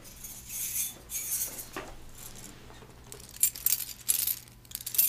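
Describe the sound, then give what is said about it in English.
A bunch of keys jangles as they are handed over, in short, uneven bursts of bright metallic clinking that grow louder and busier toward the end, with no one speaking. “Here, let me give you my keys.”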